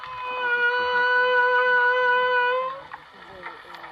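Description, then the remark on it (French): A male whale, first identified in 1979, sings underwater near a boat, its song played over the boat's loudspeakers: a long, loud, steady tonal moan rich in harmonics holds for nearly three seconds, then gives way to softer, wavering calls. “Ce mâle dont nous entendons les mélodies a été baptisé Harry.”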